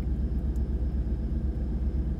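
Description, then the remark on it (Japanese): A steady, low road rumble fills a moving car's cabin, a continuous deep drone of engine and tire noise with no voices, holding at an even, moderately loud level throughout. “そう車の中でこうやって移動中に撮ってるのが一番なんだろう撮りやすいというか私には合ってるのかな”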